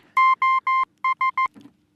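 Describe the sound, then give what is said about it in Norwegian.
Electronic beeps tapped out like Morse code SOS: three long, evenly spaced tones, a short pause, then three quick short ones, clear, followed by a faint soft thump. “Det er jo Jeg føler det er som Morse.”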